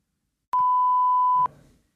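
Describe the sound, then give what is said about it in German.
A single steady censor bleep covering a spoken name, a loud mid-pitched tone lasting about a second, switching on and off abruptly, with a brief faint murmur trailing after it. “Du, nee, du kannst ihn sagen, wir piepen ihn.”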